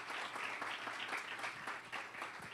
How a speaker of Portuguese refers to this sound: Você pode aplaudi-lo em nome de Jesus?